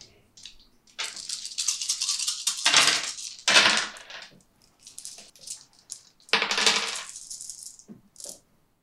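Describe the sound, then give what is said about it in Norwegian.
Dice for a panic roll in a game rattle and clatter across a table in several bursts, a sharp, bright clicking that swells, pauses and tumbles again before a few last small taps. No one speaks. “Eh, så jeg ruller panic roll.”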